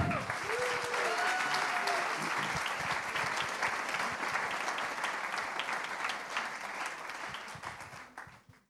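An audience bursts into sustained applause welcoming a guest speaker, a dense wash of clapping that holds steady for several seconds before tapering off at the end. A few brief whistles or cheers rise above it early on.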